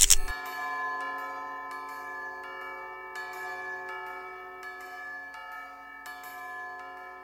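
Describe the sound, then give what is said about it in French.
Deep bells toll slowly, struck about every second and a half, their rich overtones ringing on and overlapping in a sustained, resonant wash. No one speaks. “Les cloches, la nuit, ce sont caverneux.”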